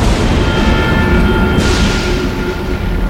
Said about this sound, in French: Les trois hommes sont alors en train de survoler l'Afrique orientale, de Zanzibar jusqu'aux sources du Nil, à bord d'un ballon gonflé à l'hydrogène, le Victoria, quand soudain, un orage éclate.